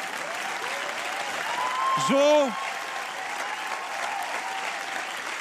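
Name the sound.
audience applause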